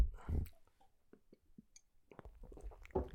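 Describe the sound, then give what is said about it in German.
Someone drinks fridge-cold Heineken beer from a bottle: quiet gulps and swallows with small wet lip smacks and clicks, a few soft mouth noises spread over a few seconds, no talking. “Vielleicht kriegt ihr erstmal schön ASMR mit Alkohol.”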